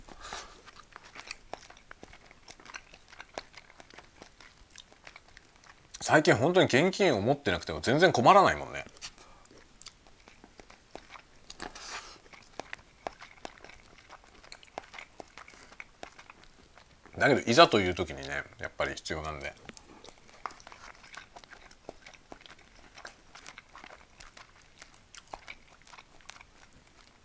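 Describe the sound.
Someone talks casually during a lunch break while eating a convenience store bento, with soft chewing under the voice and two louder, crunchy bursts of mastication a few seconds each.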